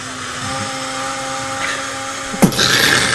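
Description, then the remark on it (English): An electric blender mixing beer whirs steadily, its motor humming in a constant drone, then shifts with a sudden clunk and a rougher, churning sound toward the end. “Now I've got more beer in there. I'm gonna mix it some more.”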